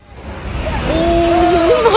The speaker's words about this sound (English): A viral video from Hawaii's Big Island caught gigantic waves last Saturday, easily clearing a two story condo building.